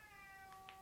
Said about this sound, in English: That's the cat in the background. I've shut the door, so trying to get a piece, bit of peace and quiet to record this. He's having none of it.